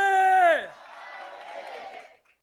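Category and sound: crowd, standing audience applause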